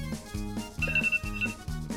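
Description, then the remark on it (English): A timer alarm goes off, playing a bright, repeating electronic ringtone pattern in quick pulses about twice a second, with a sustained high beep in the middle. No one speaks over it. “Okay, it's timer.”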